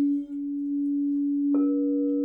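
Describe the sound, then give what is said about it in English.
A smoky quartz crystal singing bowl is played, humming a steady, deep sustained tone, with a second brighter tone and overtones joining partway through, ringing smoothly with no voices. “And then when I played the smoky quartz, which I just love her deep sound”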